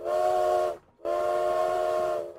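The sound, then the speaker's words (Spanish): A steam train whistle sounds in two long, steady blasts separated by a brief gap as the train is about to arrive. Its breathy multi-tone chord is loud, with a hiss of steam underneath. “Entonces el silbato comenzó a sonar.”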